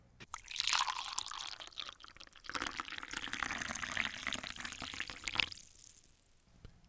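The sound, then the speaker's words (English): Liquid is poured steadily into a cup for several seconds, a bright splashing gurgle that pauses briefly midway, then resumes before trailing off into quiet. Clear, with no talking. “Look, let's just go ahead and get this thing poured up”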